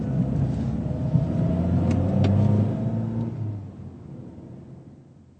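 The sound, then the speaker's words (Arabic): A taxi's engine rumbles and revs as it pulls away carrying a passenger to the Hotel Europa, the low motor sound peaking early and then fading steadily. No one speaks. “رجل يقف في الشارع ويوقف سيارة أجرة ويقول لسائقها أين وجهته؟”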